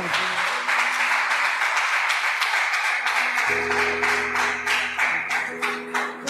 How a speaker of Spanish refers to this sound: Dele bien fuerte ese aplauso.